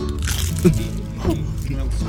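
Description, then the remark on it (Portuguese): Several people bite into crunchy food all at the same time, a couple of loud crunches over mumbling voices and chewing noises, with no clear speech. “Vamos todo mundo dar uma mundida ao é mesmo tempo”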